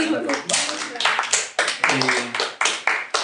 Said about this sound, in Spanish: bravo, un aplauso para